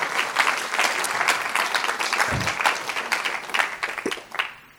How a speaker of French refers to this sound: Et euh, je ne sais pas s'il y a les, équipiers de l'épicerie qui sont là, mais on peut vraiment les applaudir. Ils ont bossé, ils ont fait un travail fantastique par rapport à cela.